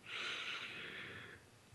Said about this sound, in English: Just take a couple of deep breaths here to get settled, breathing in